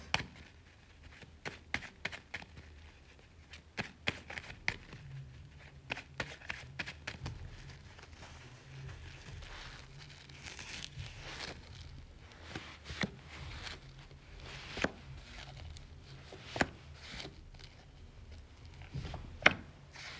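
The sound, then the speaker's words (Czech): Tarot cards being shuffled during a partner tarot reading: quiet, irregular papery taps, flicks and short riffling bursts over about twenty seconds, with no one talking. “Já už se dívám na vaši fotku, míchám u toho karty a my se spolu podíváme, co nám Tarot poví o vás dvou.”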